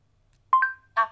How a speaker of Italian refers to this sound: Quindi con questo tenuto premuto si fanno i comandi vocali. Quindi io se dico tengo premuto, vibra. Ascolto dopo il bip.